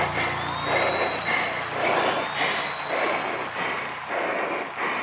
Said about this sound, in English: keep going right through the applause. 10 seconds.